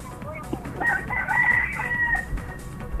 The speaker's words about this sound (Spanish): Ahí está, está el gallo.